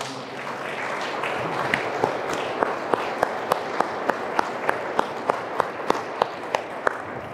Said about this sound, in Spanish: Hoy es el día del monaguillo. En muchos lugares lo celebran. Vamos a darles un aplauso a los monaguillos.